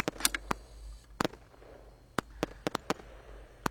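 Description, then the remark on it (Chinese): Fireworks set off as the New Year arrives, going off in an irregular string of sharp, loud cracks and pops, some in quick pairs, with a low rumbling hum underneath and no talking. “经有人开始放烟花了，新年来了。”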